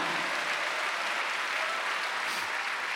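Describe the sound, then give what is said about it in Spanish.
Sustained crowd applause in a church, given for Christ, fills the whole stretch, a dense, steady wash of many hands clapping at an even loudness with no voices standing out. “Dele un fuerte aplauso a Cristo, hermano.”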